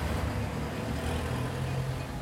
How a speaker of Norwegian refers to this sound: Og nå kommer vi jo ut, så, som du også sier, i en veldig trafikkert gate.